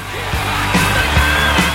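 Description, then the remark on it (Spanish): An applause-and-cheering sound effect: a crowd claps and cheers loudly and steadily, with whoops and yells rising over dense applause throughout, a brief burst of celebratory noise. “Chabón, pará con los aplausos. ¿Por qué te aplaudís?”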